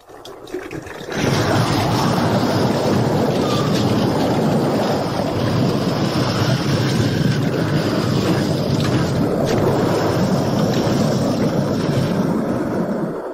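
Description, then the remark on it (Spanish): Two walls of sea water crash back together: after a moment of quiet, a sudden loud, churning roar of surging waves bursts in and rumbles on steadily, with no voices, as the parted sea closes over Pharaoh and his army. “Las dos murallas de agua volvieron a juntarse y el faraón y su ejército perecieron aplastados entre las olas.”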